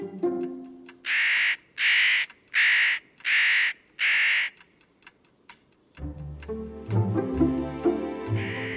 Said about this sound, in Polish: To tutaj łatwo zaobserwować można pewnego ptaka dziennego, wielkości gołębia lub kawki, który odzywa się dość często donośnym i skrzeczącym głosem.